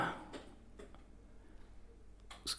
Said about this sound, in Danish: Se, der er flere forskellige apparater, der, der begynder. Man kan også høre nogle klik inde i stuen, fordi der er det nogle højtalere, der tænder osv.